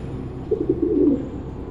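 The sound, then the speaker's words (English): A black carrier pigeon coos in a short, low, warbling run of soft throaty notes lasting about half a second, over a quiet background hum with no talking. “It looks like a black carrier pigeon.”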